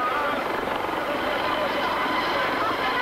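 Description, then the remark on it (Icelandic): A helicopter carrying Ceausescu and his wife to safety flies by, its rotor and engine producing a loud, steady, churning roar that holds constant for the full three seconds. “Diggir Securitate leðar gripu sjá Sesku og frú og komuðum upp í þyrlu sem fluttiðu í örugt skjól í bylið.”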